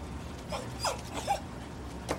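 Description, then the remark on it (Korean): A puppy held in a woman's arms whimpers in four short, high-pitched cries spread unevenly over a couple of seconds, fairly soft against a low, steady background hiss. “언제나처럼 그 시간에 언제나처럼 강아지를 품에 안고 언제나처럼 민트 스트로베리 봉봉 싱글콘을 주문했다.”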